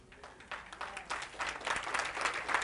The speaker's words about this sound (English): I'm going to wait while you all clap your hands because that's true. He came to set the captives free.